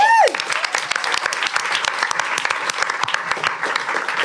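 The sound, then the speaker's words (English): An audience breaks into steady applause for burlesque performer Honey Wilde, the expert guest in the show's Ask the Expert round, dense overlapping claps that stay loud and even for several seconds, opened by a brief falling tone. “So please, a round of applause for Honey Wilde, who's our expert today.”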